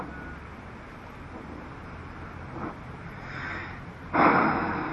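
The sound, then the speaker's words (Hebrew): A deep breath during a guided breathing exercise: a soft, airy inhale swells, then a stronger, rushing exhale follows near the end, with no talking over it. “עוד נשימה. שאיפה ונשחרר.”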